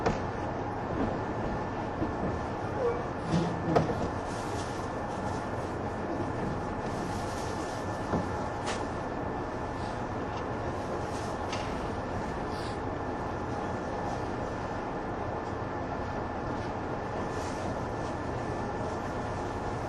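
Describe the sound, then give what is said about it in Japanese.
A 185 series express train, arriving at Atami where it will stop for coupling work, runs with a steady, dense rumble and rattle, broken by a few sharp clicks and knocks, with no voices heard. “まもなくこの電車熱海に到着いたしますが連結の作業を行うため何とか停車をいたします”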